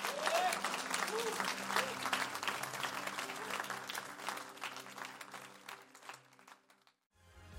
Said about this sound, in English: Come on, can we get the Lord a hand of praise today?